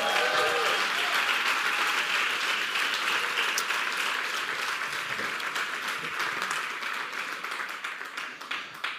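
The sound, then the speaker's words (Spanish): An audience applauds loudly and steadily in praise to the King, dense clapping with some voices cheering at the start before the applause gradually thins out. “Dele una alabanza fuerte al Rey nuevamente.”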